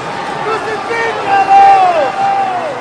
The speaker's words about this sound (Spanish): Pero ellos gritaban aún más fuerte.